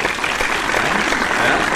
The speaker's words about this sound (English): I think we should give him a, uh, an applause.